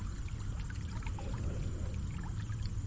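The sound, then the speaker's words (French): A swimming pool one metre away in the garden of a small house in a valley, on a hot early-July summer night without rain, its water gently lapping and rippling, with soft scattered small splashes and trickles over a steady low rumble, while a thunderstorm rumbles in the distance over the Ventoux. No voices. “Juste devant nous, à un mètre, la piscine fait quelques remous.”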